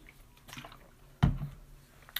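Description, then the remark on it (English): Someone takes a quick drink of water from a bottle: a soft, wet gulp in the middle, a few faint sloshing and swallowing sounds, and no talking. “Need my water.”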